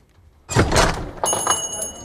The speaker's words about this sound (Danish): så blev der lige åbnet for døren.